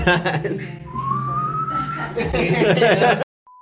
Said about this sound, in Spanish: Si estuviéramos el Vive Latino ya no estarían chiflando.